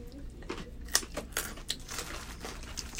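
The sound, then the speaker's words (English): Crisp, crackly crunching of raw carrots being chewed, a quick irregular series of sharp snaps and grinding bites with one louder crack near the start, over a low steady background. “We're crunching carrots and drinking iced coffee and water.”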